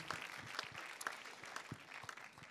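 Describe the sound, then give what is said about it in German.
A church audience applauds for Jesus, with dense, continuous clapping that holds steady for a few seconds, scattered sharper claps standing out above the wash of hands. “Ja, gebt Jesus nochmal einen Applaus und mutigen Visionären, das ist immer gut.”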